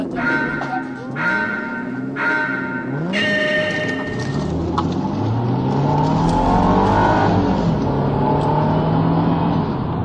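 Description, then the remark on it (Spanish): A racing car engine revs hard through a series of rising gear-shift sweeps, loud, with a second engine droning underneath as the pitch climbs and drops repeatedly. “que se nos escapa, que su coche corre más.”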